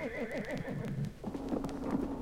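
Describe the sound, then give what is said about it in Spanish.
A horse whinnies with a wavering, descending series of neighs, loud, followed by a steadier low rumbling tone and some background noise. “Aquí tenemos nuestros caballos.”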